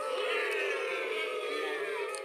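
A crowd boos loudly and steadily, many voices merging into one sustained, disapproving drone that carries through the whole moment without a break.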